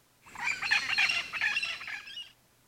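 A parrot lets out a harsh, raspy squawk lasting about two seconds, loud, with a warbling, uneven texture and no other sounds around it.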